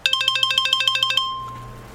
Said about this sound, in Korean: 아, 잠깐만. 전화 좀 받고.